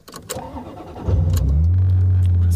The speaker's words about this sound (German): das hört sich nach einem Ferrari wieder an. Das ist der schöne Ferrari von vorhin. Sound. Das ist ein geiler das geil. Das hört sich geil an.